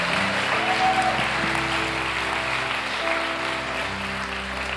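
A crowd applauds steadily and loudly for about five seconds, a dense, continuous wash of clapping with a faint tonal hum underneath and no pauses or talking.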